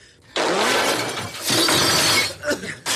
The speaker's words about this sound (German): Feuer! Die Monitore implodieren.